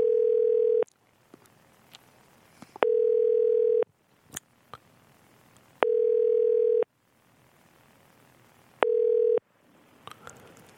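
A telephone ringback tone repeats four times, each steady electronic burst about a second long separated by pauses of roughly two seconds, with faint clicks and rustling between the rings.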